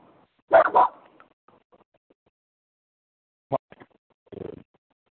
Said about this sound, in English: And I'm outside and sorry, My puppy's barking.